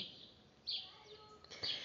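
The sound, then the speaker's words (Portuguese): Birds sing, with bright high chirps in two main bursts over a soft outdoor hiss, and a quiet, steady background with no talking. “Olha esses pássaros cantando, eles eu amo demais, demais, demais.”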